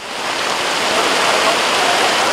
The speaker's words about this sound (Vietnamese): Cơn mưa lớn kéo dài vào chiều ngày 19 tháng 9 đã khiến nhiều tuyến đường như Trần Sư Soạn quận 7, Hồ Hục Lãm quận Bình Tân, Tôn Ngọc Vân, thành phố Thủ Đức đã bị ngập sâu trong nước.